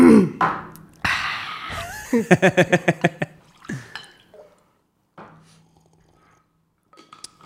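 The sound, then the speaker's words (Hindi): Water glugs into a glass in a quick run of rhythmic bubbling pulses, rising slightly in pitch as it fills, with a brief voice before it and faint clinks afterward. “का टेस्ट आएगा दूसरा ग्लास दूँ हाँ”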